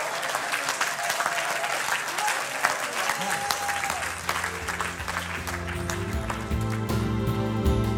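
A large crowd claps steadily in a dense, sustained wash of applause with scattered voices, while sustained music swells underneath midway and carries on as the clapping continues.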